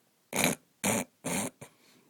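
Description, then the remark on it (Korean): A giant in a told story sniffs loudly with flaring nostrils: three long, forceful, breathy sniffs in a steady rhythm, followed by a quick shorter one. “우락부락하게 생긴 거인은 코를 벌른거리며 킁킁 대서.”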